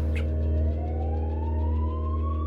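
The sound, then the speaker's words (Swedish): An ambulance siren wails steadily as the ambulance drives quickly to an emergency call at an address on Södermalm, its pitch sliding slowly upward over a loud, constant low engine rumble, as if heard from inside the moving vehicle. “beger sig snabbt mot adressen på Södermalm som bara ligger ett par minuters ambulansfärd bort.”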